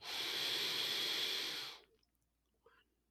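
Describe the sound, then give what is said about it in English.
A long, steady breath drawn in, airy and hissing for nearly two seconds, then it cuts off into near silence with a faint small sound after. “Anyone, if you're just listening right now, breathe in with me.”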